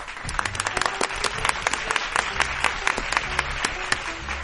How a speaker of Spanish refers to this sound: Muy bien, aplauso para